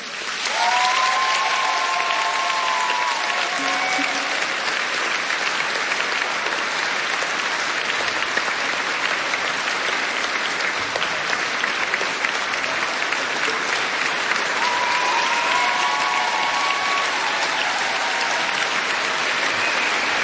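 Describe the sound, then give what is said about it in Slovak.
A crowd applauds steadily for about twenty seconds to welcome Bishop Stanislav Stolárik, a dense, even wash of clapping at constant loudness, with a few faint voices calling out beneath it. “Môžeme ho privítať po potleskom.”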